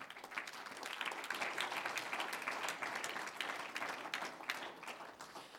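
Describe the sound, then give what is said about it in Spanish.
A church audience bursts into sustained applause for the Lord during a sermon, many hands clapping in a dense, steady wash that holds at an even level for several seconds with no voices over it. “Un aplauso al Señor.”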